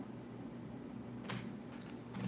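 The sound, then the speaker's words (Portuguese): A door is pushed shut with a single soft thud, followed by a few faint rustles, all over a steady low electrical hum. “Tu pode desligar, é, fechar a porta que tá dando retorno.”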